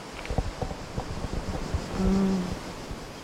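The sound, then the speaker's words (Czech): Steady sea surf washes over a beach, a broad rushing hiss that swells briefly midway, with occasional soft thumps and a person murmuring quietly. “Ale když je otevřu, tak vidím moře, dolny.”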